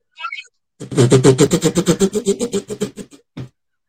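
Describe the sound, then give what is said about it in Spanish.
A voice imitates machine gun fire with a rapid, steady string of sharp staccato bursts, loud, tapering off near the end before one final burst. “Se escucha una ametralladora.”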